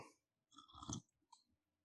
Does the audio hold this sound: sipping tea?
yes